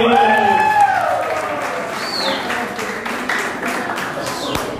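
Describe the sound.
An audience breaks into applause, a dense, steady patter of many hands clapping for several seconds, with raised voices and cheering mixed in at the start.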